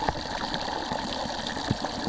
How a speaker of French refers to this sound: Parce que je suis pas assez dans l'eau, sinon là le micro il est dans l'eau. Ah, mais là, c'est bien. Après, là, c'est aussi plus fort. Le, le jet d'eau est plus fort quand même.